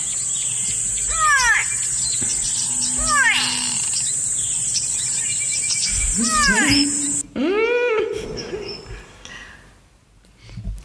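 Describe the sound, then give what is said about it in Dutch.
Nasal, drawn-out bird calls repeat in loud bursts over a constant high insect drone, with a grey go-away-bird's (lourie's) harsh, downward-sliding cries standing out clearly against the buzzing background. “Ja, dat is de lorry volgens mij. Of de, of de go-away bird, toch?”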